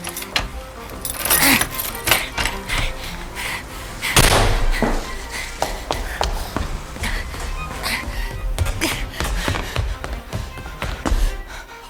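The keys to Mrs. Winterfield's house jangle in a busy run of bright metallic clinks and rattles, broken by a heavier thump partway through, with no voices.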